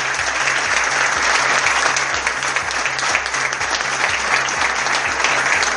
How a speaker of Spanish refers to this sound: Fuerte la aplauso de los chicos.